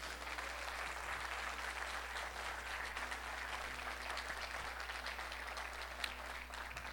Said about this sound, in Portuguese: Aplauda Ele para testificar isso.